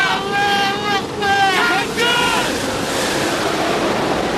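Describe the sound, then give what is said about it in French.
A huge wave crashes over a boat, a loud roaring, sustained wash of churning water and spray, with people shouting over it at the start. “Ah oui, bordel, c'est un raz-de-marée ou quoi Cramponnez-vous tous Celle-là, c'est une géante, les gars, comme au surf Elle est sur nous, au secours”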